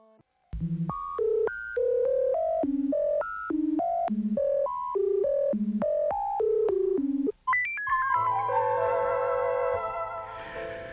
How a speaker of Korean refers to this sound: 자, 전주의 이 전화 연결 소리를 따기 위해서요. 그러니까 무작위로 국제 전화를 걸어 그 소리를 복원했다 그러죠.